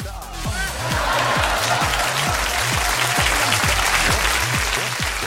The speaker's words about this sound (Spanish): Aplausos, aplausos, aplausos para